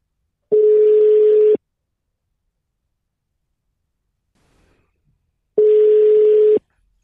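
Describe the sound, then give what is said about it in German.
A telephone ringing tone from a call placed to basketball expert Jan Finken sounds twice: two steady, mid-pitched one-second beeps with a faint hiss, separated by about four seconds of silence. “Und dazu äh, versuchen wir jetzt mal unseren Experten Jan Finken anzurufen.”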